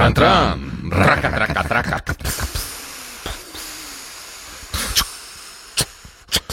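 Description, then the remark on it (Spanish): A voice imitates a train chugging along the rails, starting with a hum and then breaking into breathy, hissing chuffs and clicks in an uneven rhythm, fairly loud. “Las vías de trenes... Toco, toco, toco, toco, tran, tran.”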